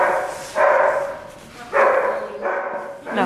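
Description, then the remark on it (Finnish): A search dog barks four times to signal a find, loud, in sharp bursts with uneven pauses between them, against a quiet outdoor background with no one talking. “vissiin teki taas löydä”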